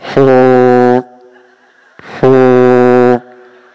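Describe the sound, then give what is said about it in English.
Two long, loud blasts of a ship's horn from a ship coming straight at people on the water, each lasting close to a second with a deep, brassy tone, separated by a short pause and fading into a faint lingering hum. “There's a ship. It's not a boat, it's a ship.”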